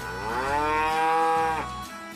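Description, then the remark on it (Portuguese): A single long, loud cow moo, swelling and then tailing off over about two seconds, with no talking around it. “Eu não sou o teu almoço, nem serei o teu jantar, disse o pato ofendido. Sou uma vaca, e todos sabem que as raposas não comem vacas.”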